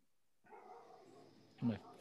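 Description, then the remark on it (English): A muffled dog barks once from upstairs, a short, thick burst rising over a steady background murmur that continues before and after it. “fucking dog barking upstairs.”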